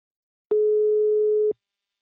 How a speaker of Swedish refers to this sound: Nu tar vi en kort paus och ringer upp min samarbetspartner Invacare.